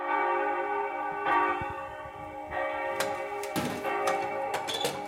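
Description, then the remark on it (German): A church bell rings with a rich, sustained metallic hum, its tone swelling with each new strike every second or so, and a few faint clanks mixed in. No voices. “Der Ring schlug ein Loch in die Kundelsglocke, doch ihr Ton blieb unverändert rein und schön.”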